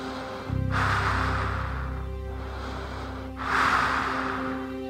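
Heavy breathing inside a spacesuit helmet: two slow, loud inhale-exhale cycles with a hollow, muffled quality over a steady low hum of equipment. No one speaks.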